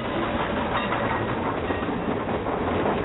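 A locomotive rolls past, a loud, steady rumbling roar with rattling wheel noise and an audible Doppler effect that stays strong for the full three seconds, with no voices.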